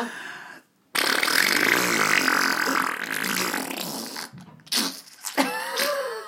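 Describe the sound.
A voice imitates a long, wet, sputtering fart with the mouth, a loud raspy burst lasting several seconds, followed by a few shorter spluttering bits and a brief squeaky trail.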